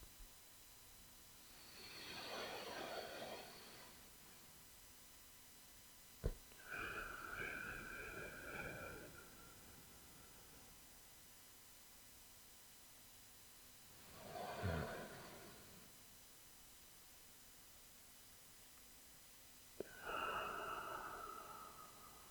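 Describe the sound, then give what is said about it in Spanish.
Slow, deliberate breathing with eyes closed as a calming breathing exercise: four long breaths with quiet pauses between them, some slightly airy and whistling. “Aprovecho que la música cambia para respirar un poquito. Cierro los ojos y voy con mi respiración.”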